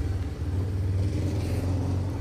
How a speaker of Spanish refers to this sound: hoy en una transmisión especial desde San Sebastián del Oeste, que iba pasando una motocicleta un medio de transporte muy común aquí en la zona.